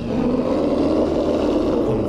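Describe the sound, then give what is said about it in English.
A deep, sustained monstrous roar from beyond the walls rumbles loudly and continuously for a couple of seconds, rough and growling with heavy low-end energy, with no voices present. “all of you hear the sounds of very panicked, frightened chickens clucking and flapping, and a hideous, monstrous roar”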